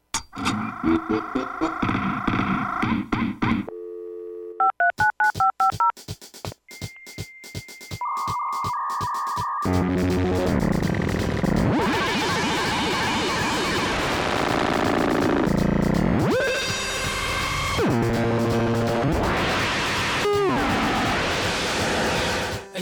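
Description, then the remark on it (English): A computer's dial-up modem dials to connect to the internet with a quick run of beeping tones, then pauses and sends steady pitched tones before erupting into a loud, continuous screeching and hissing handshake noise. “start computer and the modem to hear the show that I'll be downloading.”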